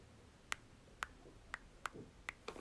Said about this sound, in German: Also die Tastaturanschläge, das sind ähm, die Töne, die kommen, wenn man Buchstaben schreibt, also